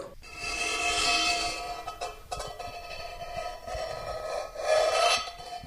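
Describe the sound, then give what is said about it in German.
A knife slices straight through cheese, cut toward the person cutting, in long, raspy strokes, a scraping hiss with a few thin squeaks, pausing briefly before a second steady cut. No one speaks. “Und jetzt schneidest du einfach mal gerade, so dass man es auch hört, dass du schneidest, äh, gerade zu dir.”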